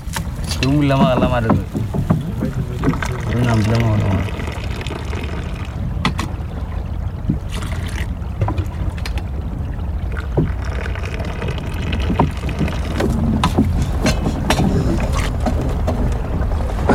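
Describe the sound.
A dugout canoe (pirogue) on the Niger River in the dry season, over a shallow sandy bottom, with people taking tea with the crew aboard. A steady low rumble of water and hull runs throughout, with scattered knocks and splashes, and voices murmuring over it early on.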